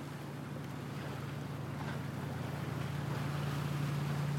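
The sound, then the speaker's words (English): A boat engine drones steadily over rushing, splashing water and gusts of wind, the whole mix holding loud and constant with no voices. “Close your eyes and imagine you are cold and sitting in the back of a boat.”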